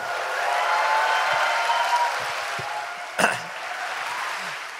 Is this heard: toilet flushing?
no